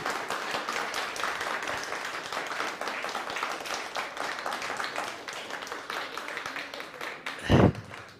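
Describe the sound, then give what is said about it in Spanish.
Sustained applause for God from a sizeable crowd at a religious gathering, a dense steady patter of many hands clapping for several seconds, with a brief louder thump near the end. “Denle un fuerte aplauso al bendito sea por todo lo que está ocurriendo aquí.”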